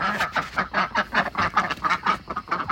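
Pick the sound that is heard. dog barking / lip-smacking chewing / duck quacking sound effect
duck quacking sound effect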